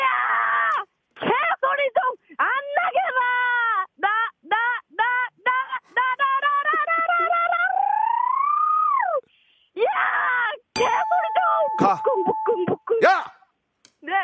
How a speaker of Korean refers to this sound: 개소리 좀 안 나게 해라 EDM 리믹스입니다. 자 들어보겠습니다.